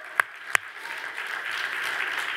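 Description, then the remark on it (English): A church audience breaks into applause: two sharp, separate claps come first, then many hands join in a dense, steady patter that swells slightly and holds at a moderate level. “Just clap. You can do it.”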